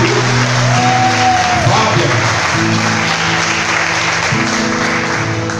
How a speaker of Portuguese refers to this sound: É para aplaudir mesmo, igreja, é para aplaudir o milagre